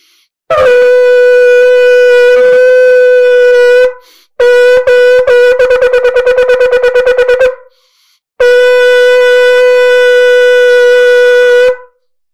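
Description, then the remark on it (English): A shofar blows a full tekiah shevarim-teruah tekiah set: a long sustained tekiah blast, then a group of short broken shevarim notes followed by a rapid staccato teruah run, and a final long tekiah blast, loud. “That's your entire set. The kiyas were long on both ends. Your shvarim trua, that's what it is.”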